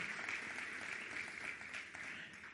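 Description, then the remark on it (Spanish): Steady applause from an audience for a group of young people returning to their places, a dense crackle of many hands clapping at an even loudness throughout, with no voices standing out. “Un aplauso para ellos puede ser.”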